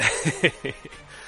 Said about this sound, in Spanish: Ahí está tos, qué mal.